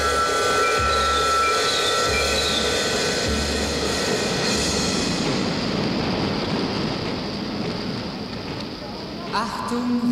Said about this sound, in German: Reisende, Vorsicht auf Bahnsteig 1. Der um 41 Minuten verspätete Fernzug Glucker Richtung Jersey, New York fährt ein. Bitte zurücktreten.